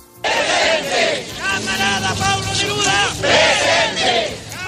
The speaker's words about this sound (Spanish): Gritos de Pablo Neruda presente ahora y siempre.